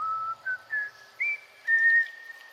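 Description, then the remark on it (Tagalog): A person whistles a short tune of five clear notes, as if mimicking someone else's whistling, each note rising slightly in pitch, with brief gaps between them and the last note held longest. No one speaks. “Narinig ko ulit ang pagsipol na parang ginagaya ako.”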